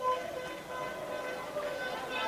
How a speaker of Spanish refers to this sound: Escuchamos los bocinazos de los autos.